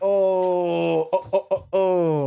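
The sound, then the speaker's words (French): A single voice sings a mock version of the losing jingle from the French game show Motus: a long falling note, three quick short bursts, then another drawn-out sliding tone, fairly loud. “Mais pourquoi tu fais ça C'est le chant de la défaite dans, dans cette incroyable émission qui est Motus.”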